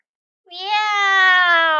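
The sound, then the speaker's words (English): A voice imitates the meow of Tom, a scruffy, raggedy cat in a story: one long, drawn-out, nasal 'meow' starting after a brief silence, steady and fairly loud, with a slightly falling pitch that holds to the end. “喵！他好像在说 I'm Tom, your wish cat, he seemed to say.”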